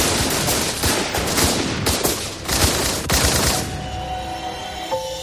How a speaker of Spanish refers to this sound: Pero tanto él como algunos de sus hombres fueron tiroteados hasta la muerte.